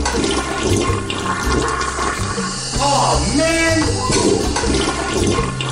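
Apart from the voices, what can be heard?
toilet flushing twice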